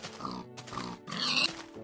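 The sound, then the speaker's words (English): Pigs on a free-range pig farm grunt and oink in a run of rough bursts, several snorting calls following one another with brief gaps and no one speaking. “Oh, it's a, it's a pig farm free range pig farm out here.”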